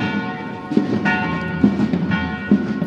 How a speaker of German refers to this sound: Das sind sie, die Glocken nicht von Rom, die Glocken von Zagreb, mittags um 12 Uhr